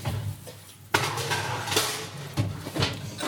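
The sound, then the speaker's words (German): A baking dish clatters and knocks against metal as it is slid into the oven, with a few sharp clinks over a steady low kitchen hum. No one speaks. “Okay, dann kommt das jetzt in den Backofen”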